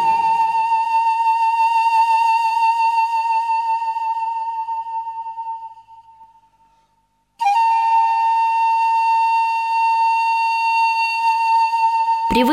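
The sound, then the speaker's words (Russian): A breathy zampoña panpipe from South America, made of a special reed rather than bamboo, holds one long, steady note that slowly fades to silence, then a second sustained note at the same pitch enters loudly and rings to the end. No voices. “Но музыку для удивительного голоса сам Понью пишут везде.”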